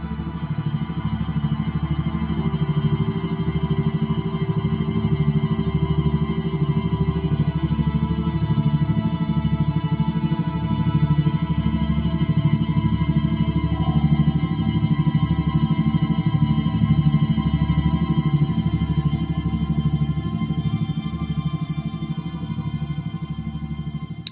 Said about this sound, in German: Ich habe für dich ein Musikstück mitgebracht, wo du im Hintergrund diese Beats hören kannst, wo es um Entspannung geht. Das sind also langsamere Wellen.